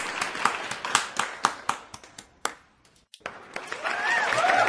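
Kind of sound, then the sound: crowd, applause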